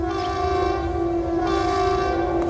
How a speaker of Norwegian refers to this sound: Det er flyalarmen, og det er ingen øvelse.